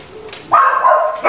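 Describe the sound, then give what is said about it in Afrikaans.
After a brief quiet moment, a dog breaks into loud, drawn-out barking, with a second bark starting right at the end; no one is talking. “Net jy so hard uitprot oor jou geloof soos die honde blaf.”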